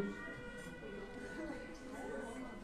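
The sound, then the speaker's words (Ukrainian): Sirens, switched on to signal that a prayer is to begin, wail outdoors in a steady, sustained drone that holds throughout, fairly faint and blended with a low background murmur. “То вже включили сирени, бо молитва має починатися.”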